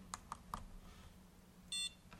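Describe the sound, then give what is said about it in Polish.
A short electronic beep from a device, a steady high tone lasting a fraction of a second, preceded by a few soft clicks over a low background hum. The beep comes after the first and second cursor routing keys are pressed while editing a serial number, confirming the name is unchanged. “E, wydało sygnał, czyli nazwa jest taka, jaka była, czyli nasz numer seryjny.”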